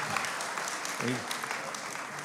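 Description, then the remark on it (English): A crowd at a church claps steadily throughout, a dense, sustained patter of audience applause for a man's shoes, with a brief voice rising faintly beneath it partway through. “And um, so let's give his shoes a round of applause, and they're very nice.”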